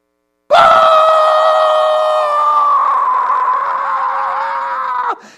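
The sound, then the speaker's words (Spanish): A single long, loud sustained scream held steadily for about four and a half seconds, a person's voice imitating a goal celebration shout heard during a televised football match when one goal was needed to win the championship, alone before cutting off abruptly. “De momento se oye el famoso grito.”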